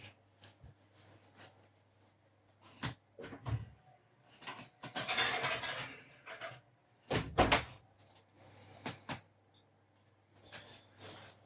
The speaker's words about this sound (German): Und wie gesagt, nachdem wir da mindestens zwei so Blechle rausbringen, mit jeweils zwölf Stück, äh, kommt das jetzt gleich mal in den Ofen rein, ne?